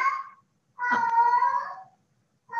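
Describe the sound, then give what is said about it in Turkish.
A pet cat meows loudly in a drawn-out, wailing caterwaul lasting about a second, preceded by the tail of one call and followed by the start of another, with no talking. “Bu arada bu, bu benim kedim.”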